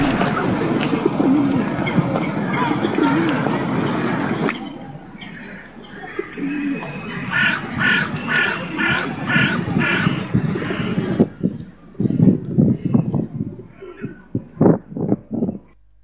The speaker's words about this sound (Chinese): 而且从这个背景音当中，应该可以听到这个嘈杂的这个这个风声。